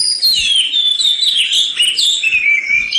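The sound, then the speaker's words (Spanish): Magpies chatter loudly and without pause, several high, harsh calls overlapping into a continuous noisy racket, with no voices present. “Una urraca empezó a parlotear en voz alta. inmediatamente otra. Y luego otra.”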